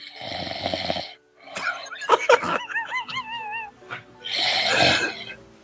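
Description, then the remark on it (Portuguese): A person snores loudly and theatrically, with two rasping breath snores framing a stretch of squeaky, wavering whistle-like wheezes, likely a voice imitating a deep sleeper. “Não, foi roncar.”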